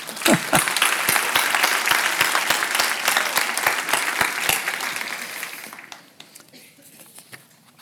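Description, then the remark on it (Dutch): An audience claps together in a dense, sustained burst of applause that stays steady for several seconds, then thins out and fades to a few scattered claps. “Zullen we eens een applaus geven?”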